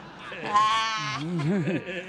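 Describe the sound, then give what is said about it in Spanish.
A person imitates a horse's whinny with a shaky, quavering voice, the pitch wobbling up and down for about two seconds. No words are spoken. “Porque no saben hablar el idioma del caballo.”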